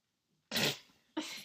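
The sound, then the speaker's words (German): A dog smacks and slurps wetly at peanut butter ice cream: a long, loud lick followed by a second shorter one after a brief pause. “Hätte alle meinen Hund Darf schmatzen. Die einfach so Eis essen.”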